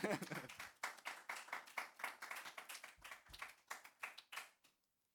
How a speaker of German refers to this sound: Und jetzt dürft ihr klatschen.